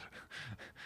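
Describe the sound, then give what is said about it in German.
A dog pants quickly, a steady run of about four breathy huffs in under a second, with no voices over it; the dog has found a toy and is playing with it, making it rattle. “sorry, das ist mein Hund gerade, die hat ein Spielzeug gefunden, deswegen klappert es ein bisschen im Hintergrund.”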